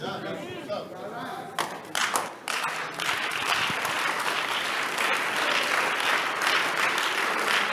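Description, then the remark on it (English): An audience in a church bursts into clapping that quickly swells into sustained, dense applause, steady and loud from about three seconds on, with a few sharper claps and murmurs early on. “No, I know it's very difficult to clap.”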